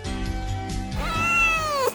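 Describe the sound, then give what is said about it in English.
Teebs, Miss Pingrino's cat, lets out a drawn-out meow that bends upward then falls, preceded by lower grumbling vocal sounds, fairly loud with no talking. “And now, Hot Toddy gets interviewed by Miss Pingrino's cat, Teebs.”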